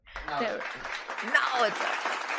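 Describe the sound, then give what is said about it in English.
A burst of clapping sound effect, played in praise of Dubai, dense and steady across the whole stretch, with a voice or two chattering faintly underneath the applause. “are you putting the clap sound effects i think now you are okay that's good”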